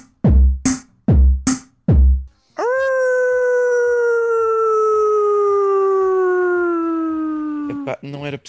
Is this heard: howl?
yes